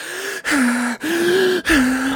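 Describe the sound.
Loud, deep heavy breathing of a person voicing a half-orc: several quick, rasping breaths in and out in a steady rhythm, each separated by a brief pause, with a slight voiced groan running through them.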